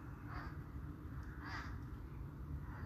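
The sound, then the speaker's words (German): Four crows fly past, cawing: three harsh calls spaced about a second apart, carried over a steady low rumble of background noise. “Vier Krähen ziehen vorbei, schwarze Silhouetten.”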